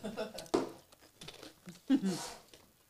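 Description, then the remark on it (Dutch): Quiet, irregular crunching of someone chewing crunchy nuts, with a few sharper crackly bites amid softer mouth noises and brief faint vocal sounds. “Even lekker kauwen.”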